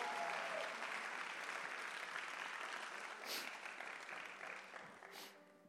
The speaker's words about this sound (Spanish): Vamos, alguien que lo entendió y que le dé un aplauso fuerte al Señor.